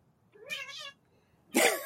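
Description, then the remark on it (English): A cat in the room lets out a single clear, drawn-out meow, followed after a short pause by a sudden loud, breathy burst from a person. “Oh, the, the cat like in the room.”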